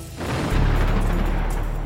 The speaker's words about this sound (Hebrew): אוי, לא, יריות, בוא מהר, חייבים להגן על המדינה.